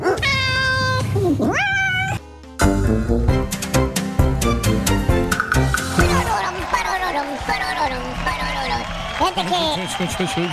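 A cat meows loudly in long, rising and falling yowls, repeated several times over a busy, rhythmic musical backing with steady beats.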